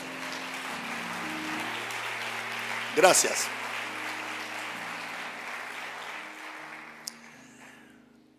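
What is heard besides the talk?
audience applauding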